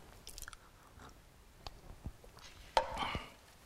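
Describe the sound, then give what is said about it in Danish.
Someone sips water: soft wet mouth clicks and slurps, then a sharper gulp and swallowing noises near the end, with no talking. “nu skal lige have en tår vand.”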